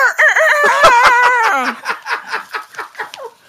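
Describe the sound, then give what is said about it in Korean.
A person mimics a rooster crowing, one long wavering, strained cock-a-doodle-doo, trailing off into a series of short, rhythmic clucking or laughing bursts. “장닭하고 코끼리 돼요”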